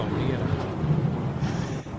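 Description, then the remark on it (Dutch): A deep, rolling thunder rumble plays steadily for about two seconds, loud, fading slightly near the end like a dramatic sound effect. “bliksem, dames en heren. Ik laat allemaal mijn sapje gewoon van. De lightning round”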